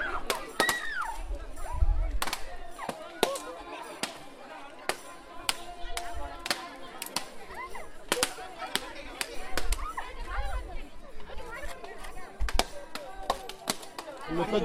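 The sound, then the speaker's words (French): Coconuts are smashed against the ground again and again in a Hindu tradition, each hit a sharp, cracking thud in an irregular rapid series, with a crowd of voices murmuring in the background throughout. “casser le noix de coco, euh, c'est pour briser tous les obstacles qu'on peut avoir dans la vie en fait.”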